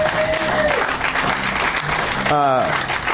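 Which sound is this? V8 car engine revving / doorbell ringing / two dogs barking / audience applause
audience applause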